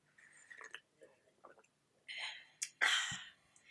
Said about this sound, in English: No, I'm gonna sip with you. We're gonna make a little slurp. Ready? Okay, here we go.